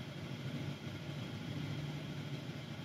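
inside a car

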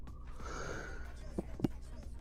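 yawn

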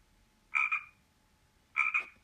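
frog croaking

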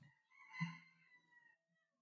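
rooster crowing

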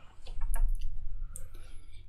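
computer mouse click

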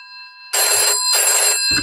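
telephone ringing

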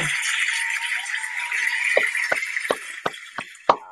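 applause sound effect

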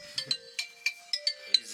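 phone ringtone

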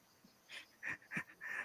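cricket chirping in background

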